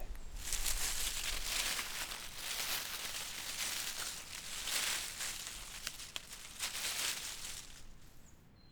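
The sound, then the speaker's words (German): Beech and oak leaves rustle steadily in the wind, a dense, hissing rush of foliage that swells and eases in waves, with occasional crisper crackles; no voices. “Unter Blätterrauschen kann sich wohl jeder und jede etwas vorstellen.”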